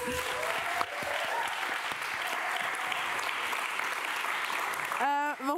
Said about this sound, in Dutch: ik wil jullie ontzettend bedanken. Dankjewel voor jullie openheid en eh, voor alle gedachten die jullie met ons wilden delen. Groot applaus alsjeblieft.